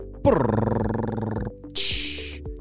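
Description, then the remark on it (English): A voice imitates a drum roll with a loud, rapidly fluttering rolled buzz lasting about a second, followed by a short hissing burst like a cymbal crash. “Drum roll, please.”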